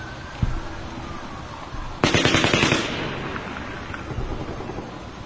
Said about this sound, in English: really long pause there between shoot. Yeah. Yeah, it does. It sounds like automatic gunfire. Maybe that was the end of it.